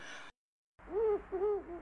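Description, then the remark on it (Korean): A human voice mimics a dove's cooing with a few low, hollow, rounded hoots in a rhythmic phrase, fairly loud, after a brief burst of sound and a pause of silence; a Korean folk imitation of dove cooing from the Gyeongsang and Gangwon region. “경상강원 비둘기 흉내소리”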